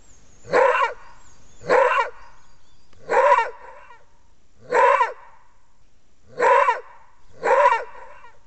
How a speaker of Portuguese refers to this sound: Hoje nós vamos pedir silêncio para ouvir um animal muito curioso que existe no Cerrado brasileiro, chamado lobo-guará.